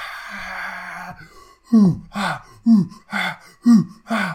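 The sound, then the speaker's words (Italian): A single voice imitates the war cries of advancing orcs: a drawn-out rasping tone, then six loud, rhythmic chanted shouts with falling pitch, like an advancing war chant. “che stanno avanz- avanzano con fatica perché ovviamente c'è l'acquitrino e ci sono diciamo le difficoltà che gli avete fatto avanzano sentite i tamburi che cominciano a suonare e delle grida”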